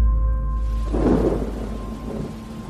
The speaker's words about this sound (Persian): همون موقع بارون گرفت نمیدونم چرا ولی از بچگی از بارون خوشم میومد همیشه یه حس آرامش بهم به میده مخصوصا اولش که زمین خیس میشه بوی نم و خاک بلند میشه